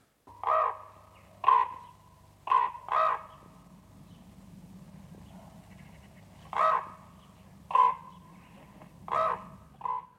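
A common raven croaks repeatedly, eight or so loud, hoarse calls in uneven pairs and singles, standing out clearly against a low steady background rumble with no talking.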